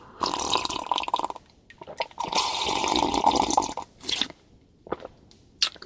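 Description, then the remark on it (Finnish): Loud, wet slurping of cold coffee in several long drawn-out pulls, broken by short pauses and a couple of brief sharp sucks at the end, with no talking. “Tervehdys parittaja Parkkonen, tässä on nyt sulle ryystämistä ihan kunnolla.”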